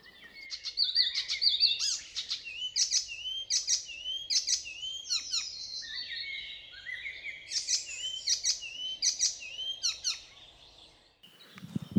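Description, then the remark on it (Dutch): An icterine warbler sings a busy, varied song of rapid chattering phrases, squeaky notes and sweeping whistles, some sounding like imitated calls, repeating in bursts with brief pauses, clear with no talking. “En dat is eigenlijk iets, iets heel, heel typerend ook voor, voor Spotvogel.”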